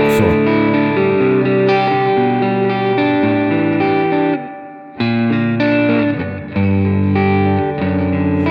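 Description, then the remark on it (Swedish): Electric guitar chords ring out with a short spring reverb adding a slight splashy tail, played loud with a brief drop in the middle before strumming resumes. “Men short spring... reverb Ja, men jag tycker liksom så här, om du spelar nu ungefär så här som jag tycker att liksom Eh, oj, så.”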